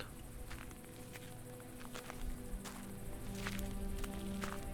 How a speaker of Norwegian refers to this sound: Det går en gammel mann i det tørre elveleiet i Pibor øst i Sør-Sudan. Pibor er kjent for elva og alt vannet som strømmer, her er stundom flom. Men nå har alt tørka. Den gamle mannen har sko som er laget av bildekk, og det er alt.